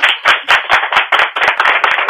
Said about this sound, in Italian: registriamo due applausi, eh? sì. okay, così, così poi li mandiamo quando la gente non applaude, si manda l'applauso finto.